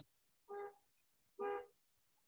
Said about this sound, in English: oh, that's so funny. And right as I said that, they just honked a horn outside. Somebody's car alarm's going off. I don't know if that's the proof they meant, but maybe you can hear that. It's still going.